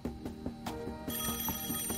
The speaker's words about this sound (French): Quand le téléphone sonne, l'agent répond immédiatement.